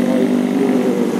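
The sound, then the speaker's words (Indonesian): A steady, loud engine drone with a low buzzing hum, like a motorcycle going by, holding constant for about a second with no speech. “gue minta maaf kalau suara gue mungkin akan wow, wow, wow, wow motor nih”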